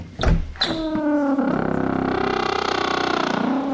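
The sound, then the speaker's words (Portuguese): A few heavy knocks from a newly replaced, misaligned office door, then a long, loud, raspy creak from it that bends in pitch and grinds on steadily for several seconds, with no one talking. “Olha a porta toda desalinhada, rangendo.”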